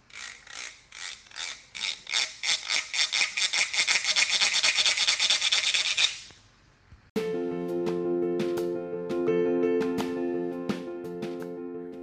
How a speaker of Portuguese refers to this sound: E o trem passou por ali.